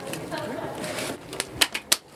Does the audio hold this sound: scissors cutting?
yes